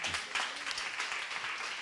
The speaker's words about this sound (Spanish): Dele ese fuerte aplauso al Señor.